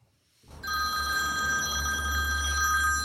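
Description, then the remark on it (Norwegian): A telephone starts ringing with an incoming return call after a brief quiet moment, a steady, bright electronic ring that holds continuously over a low background hum, with no talking. “men eh, så ringer han tilbake til meg, da.”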